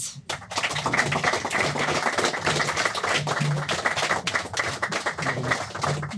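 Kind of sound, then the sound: crowd, audience applause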